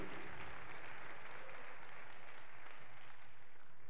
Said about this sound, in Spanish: Le das un aplauso de alabanza al Señor, amén.